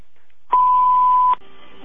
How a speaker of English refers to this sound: You have reached the answering machine of Fred and Wilma Flintstone. Please leave us a message after the beep.